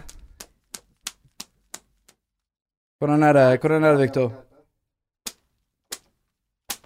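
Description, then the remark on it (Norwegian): A woman's hand slaps on a man land in an irregular series of quick, crisp smacks, starting gently, pause while someone speaks briefly, then three louder slaps follow at slow, spaced intervals. “Gjør han litt klar for første klaske.”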